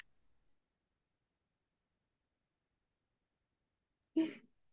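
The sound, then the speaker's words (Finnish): A long stretch of silence, then a single short, muffled cough away from the microphone near the end, breathy and somewhat loud, with no talking around it. “Ja ota, mä täytyy yskimällä mikrofoni pois.”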